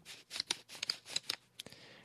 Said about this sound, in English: But let's do our same dollar bill test. So here's my dollar bill up close to the microphone.